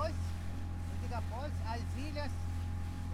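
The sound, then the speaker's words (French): A boat's motor drones steadily as the boat moves deeper into marshland, a low constant hum that never lets up, while a voice talks over it. “Le bateau s'enfonce dans les marécages.”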